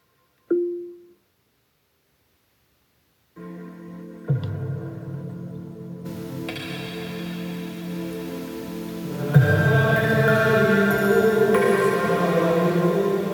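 An Amazon Echo 4 smart speaker gives a brief chime, falls silent, then starts playing full, dense music with bass and highs from a test playlist, growing louder and brighter partway through as the volume is raised, with no talking.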